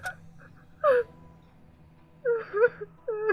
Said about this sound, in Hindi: कि तभी मुझे बाथरूम से किसी लड़की के रोने की आवाज़ सुनाई दी मैं सोच में पड़ गया कि बॉइस हॉस्टल में लड़की की आवाज़